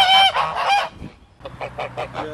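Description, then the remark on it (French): A flock of domestic geese honks loudly in response to a call, a burst of overlapping nasal calls followed after a brief pause by a second run of rhythmic honking. “Ce qui est assez sympa avec les oies, c'est qu'il n'y a qu'à faire Coucou les filles”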